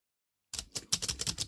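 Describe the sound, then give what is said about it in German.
Quick clattering keystrokes on the keyboard of a braille notetaker, typed fast, a run of sharp clicky taps in an uneven rhythm, moderately loud, with no voices. “Das ist also gar nicht so leise, wie man das vielleicht”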